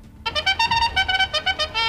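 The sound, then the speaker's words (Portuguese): A bright, brassy bugle sound effect blares in a quick series of about ten short toots, loud, ending on one held note, with no voices. “Funcionou. É só a corneta véu.”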